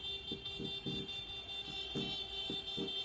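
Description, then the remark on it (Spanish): A chorus of car, motorbike and bicycle horns honks in rapid, overlapping short blasts over a steady high-pitched tone, sounded by dozens of delivery riders protesting in Madrid on 16 April during the pandemic state of alarm, with no talking. “Decenas de riders, empleados de Globo, Delibero o Uber Eats hicieron sonar las bocinas de sus coches, motos y bicicletas para protestar precisamente contra esto”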